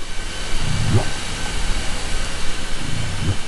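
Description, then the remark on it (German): Two short, low whale contact calls in Glacier Bay, each a quick upward-sweeping whoop, spaced a couple of seconds apart over a steady underwater hiss and rumble. “Der ist sehr kurz und prägnant und klingt etwa so.”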